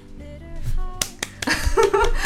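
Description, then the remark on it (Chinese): Sparse, awkward applause: a few isolated sharp claps, then a thin, uneven patter of clapping from a small number of hands, over faint tonal sounds in the background. “想起了很尬的掌声。”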